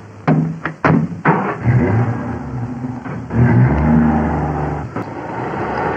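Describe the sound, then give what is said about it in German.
The engine of a new Opel Kapitän car accelerates, its loud drone rising in pitch through several gear changes, with a few sharp clicks early on and no voices. “Und boy, was das für ein Wagen wird. Ein Opel Kapitän. Ein neuer Wagen.”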